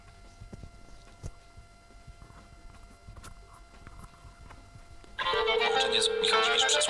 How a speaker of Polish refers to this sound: No i tak, jak już słyszymy, mam tutaj wiadomość, ale jak wyciszę dzwonek, no to już nie wiem nic. I odbieram teraz może tradycyjnie.